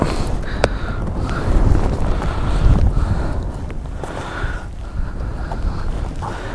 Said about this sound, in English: I can't believe this wind picked up right now